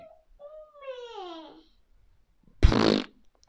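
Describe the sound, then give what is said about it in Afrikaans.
A person imitates a hippo blowing: a short descending vocal groan followed by a loud, brief raspberry-like blast of air through the lips. “Maar net so blaas seekoei.”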